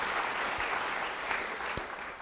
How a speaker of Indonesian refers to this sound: Yang suka beri tepuk tangan bagi dia. Haleluya.